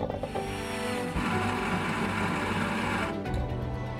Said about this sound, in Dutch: Dit keer zijn we bij het Haags Bakkie te gast in Delft. Terwijl de koffiemachine weer vrolijk ratelt.